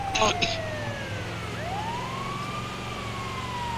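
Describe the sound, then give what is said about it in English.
A wailing ambulance siren in a video game sweeps up and down steadily over a low engine rumble, with a brief clatter of bright noise at the start; it sounds continuous throughout. “I don't know why, I just feel like driving my ambulance into a gas station pump.”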